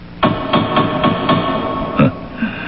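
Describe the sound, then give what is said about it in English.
Heavy knocking on large gates: five loud, evenly spaced blows, a brief pause, then one more hard knock, each ringing out with a booming, resonant echo. No one speaks. “Uh, may I knock”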